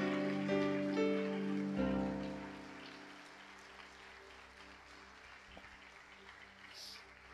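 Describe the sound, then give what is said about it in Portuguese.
A crowd applauds to the Lord with a dense, steady patter of clapping, strongest at first over a sustained keyboard chord that cuts off, then fading to softer, thinner clapping. “E se você entende isso, dê um aplauso ao Senhor.”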